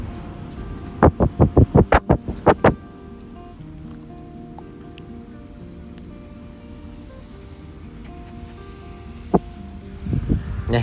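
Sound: dog panting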